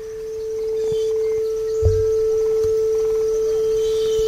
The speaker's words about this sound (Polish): słuchajcie, usłyszycie sami, po prostu usłyszcie sami. To jest 440 Hz.